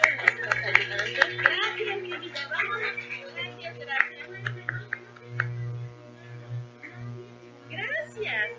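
A short burst of audience clapping for the children, dense and fairly loud at first, then thinning and fading, with a steady low electrical buzz humming underneath throughout.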